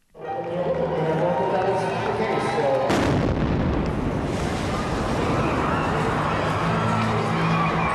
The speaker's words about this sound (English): Apparently, there's been an explosion at the Boston Marathon. Within 30 seconds of it, there was a second one, and when you look back, it was just right immediately on the finish line